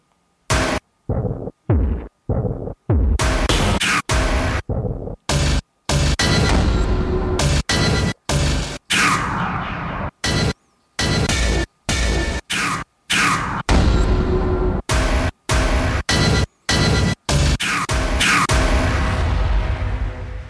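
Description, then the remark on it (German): Percussive cinematic keyboard sounds played on a keyboard with an instrument preset called something like 'Cinematic', following the rhythm and pitch of a tune's notes: a rapid, uneven series of loud booming hits and noisy whooshing bursts, some with swept, falling tails, separated by short silences, with no talking. “Also diese Sounds, die jetzt kommen, habe ich auf dem Keyboard gespielt”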